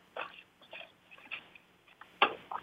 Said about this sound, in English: You, d- you sipped your water. You're good for a couple minutes now.